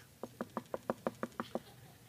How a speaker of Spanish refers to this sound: Es la puerta de enfrente la que suena.